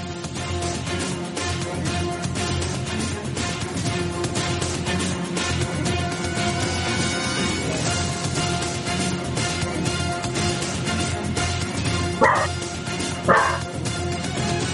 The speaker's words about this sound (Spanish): Nos lo deja Tito Uda y es el tema de Grey Wolf de Headhunter. Ya. ¿Cuál? De Dreamcast